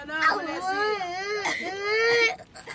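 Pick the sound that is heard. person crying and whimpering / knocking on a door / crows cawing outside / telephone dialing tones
person crying and whimpering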